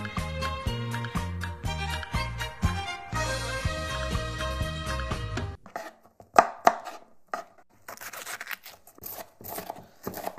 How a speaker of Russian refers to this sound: И для подачи мы возьмем один огурец, из него нужно убрать семечки и нарезать соломкой.